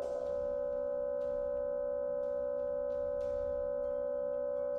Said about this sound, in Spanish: ¿escucháis la interferencia?